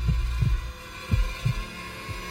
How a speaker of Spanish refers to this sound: El joven podía escuchar los latidos de su corazón y tardó un buen rato en recuperarse de la impresión.